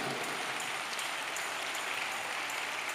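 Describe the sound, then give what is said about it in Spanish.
A crowd applauds steadily, a dense, even wash of many hands clapping with no single claps standing out, holding at the same level throughout without any voices. “Dámele el aplauso. Dáselo.”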